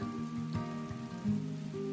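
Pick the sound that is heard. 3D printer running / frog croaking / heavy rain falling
heavy rain falling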